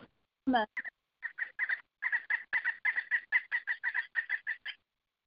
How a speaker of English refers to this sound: That bird, that bird's upset.